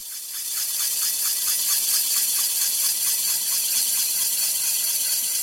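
A steady, high-pitched grinding hiss from a machine at the Physikalisch-Technische Bundesanstalt (PTB) whose rotating hollow core drill lowers millimetre by millimetre into a silicon crystal to cut it out, with a faint rapid rattling pulse running through it, continuous and fairly loud, no voices.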